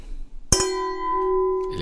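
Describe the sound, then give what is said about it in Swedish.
Glasses clink together once in a toast, a bright sharp tap followed by a clear ringing tone that lingers for over a second before fading, fairly loud. “Ja, skål! Skål!”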